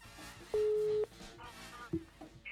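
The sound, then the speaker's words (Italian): A telephone ringback tone on a call being placed sounds once as a loud, steady electronic beep lasting about half a second, followed a moment later by a brief blip, over a faint busy background. “vedi che squilla.”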